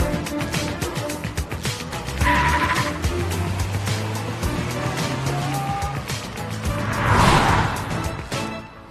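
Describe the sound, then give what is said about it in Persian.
A race car engine roars and revs continuously, with a burst of harsh tire squeal around the middle and a louder screech near the end, fairly loud. “ای بابا این ماشین مسابقه است من بلد نیستم پایین بابا این با همه اتومات فرق داره”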